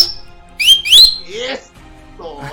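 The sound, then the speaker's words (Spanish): Two loud whistles with quick upward-sliding pitch, like a person whistling sharply, followed by a voice talking briefly. “Bien chiflados esta noche.”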